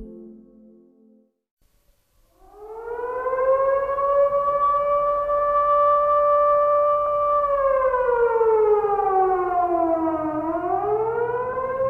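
An air raid siren wails loudly in Helsinki on the last day of November, just after nine in the morning, its steady tone rising in and holding before sliding down in pitch and swooping back up. A brief low hum comes before it starts.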